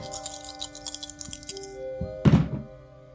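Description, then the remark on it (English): A die rattles briefly in a hand, then lands on a tabletop with a solid thunk and a short clatter as it settles, showing a 10. No one speaks. “Roll gem. again on your way out.”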